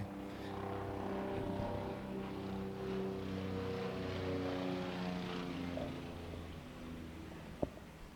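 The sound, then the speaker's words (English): A police helicopter, flying around looking for suspects, drones steadily overhead, its deep engine and rotor hum holding at a constant loudness for several seconds, with a brief sharp click near the end and no voices. “so hopefully you caught that little helicopter.”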